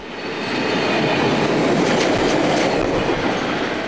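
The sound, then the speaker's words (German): A train rumbles past on the Gotthard railway line in Switzerland, a steady loud roar of wheels and rail noise filling the whole stretch, with faint clattering and a brief metallic hiss in the middle. “Es ist heute schon laut an der Gotthardstrecke.”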